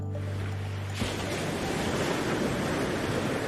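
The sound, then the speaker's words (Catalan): Sea waves wash steadily onto a shore in a continuous broad, loud roar of surf, following a brief low humming tone in the first second. “A mi em ve al cap això, molt típic, sí, ho sé, però penso en el mar.”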